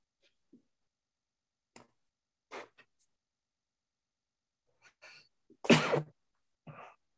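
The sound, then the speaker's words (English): Scattered small breaths and sniffles lead up to one loud sneeze near the end, followed by a shorter, softer burst, in a sneezing attack. No one speaks, and the sounds are separated by quiet. “I have like a sneezing attack.”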